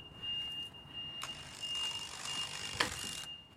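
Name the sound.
truck reversing warning beeps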